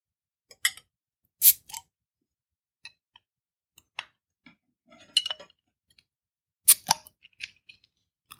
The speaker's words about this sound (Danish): skal vi springe på øllen? Skal vi lave noget lyd?